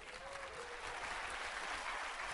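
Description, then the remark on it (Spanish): An audience applauding: dense, steady clapping from many hands that holds at an even, fairly loud level throughout, with a faint voice briefly audible beneath it near the start. “Sigan aplaudiendo.”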